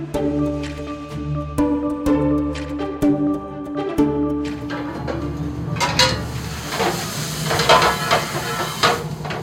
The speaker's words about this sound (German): In der Küche brummt die Lüftungsanlage und der Gasherd schlägt große Flammen.